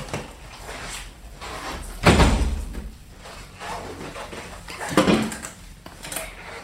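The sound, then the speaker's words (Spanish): A window being slid shut: a loud rumbling scrape ending in a low thud, followed a few seconds later by a second, softer sliding rattle over a quiet background hum. “Ahora un minuto voy a cerrar la ventana porque siento que hay mucho ruido de afuera.”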